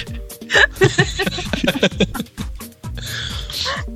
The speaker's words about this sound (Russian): а ты умеешь одновременно смеяться и чмокать? Умеет, смотрите.